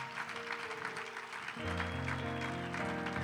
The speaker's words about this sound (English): let's give this family a hand.